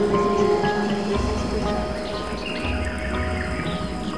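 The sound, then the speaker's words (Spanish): Steady rushing water of a river fills the background at a constant level, with birds chirping and singing over it and a deeper rumble joining partway through. No one speaks. “y vas notando como el sonido del agua se hace cada vez más intenso.”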